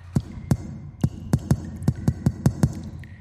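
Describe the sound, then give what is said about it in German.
A series of about nine dull, muffled knocks in an uneven rhythm, bass-heavy, coming from the other side of a wall, with no voices and only a low background hum between them. “Es vergehen einige Minuten, bis ein Klopfen von der anderen Seite zu hören war.”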